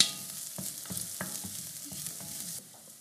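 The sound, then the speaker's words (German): Chopped vegetables with chili flakes sweat and sizzle steadily in a hot pan, with a soft continuous hiss broken by irregular scrapes and clicks as a utensil stirs them. No one speaks. “Okay, wir lassen das ein bisschen anschwitzen noch.”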